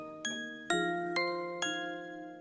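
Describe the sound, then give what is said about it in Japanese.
Four bright, chiming music box notes from a tune made with free sounds in GarageBand, plucked at an even, unhurried pace, each ringing out and overlapping the next as they gently fade. No voices. “オルゴールで曲作るってどんな感じだろうとかすごい思ってたんだけど。”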